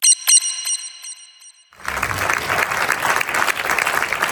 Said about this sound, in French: sur scène, euh, applaudi comme il se doit euh, pour la présentation de la nouvelle Freebox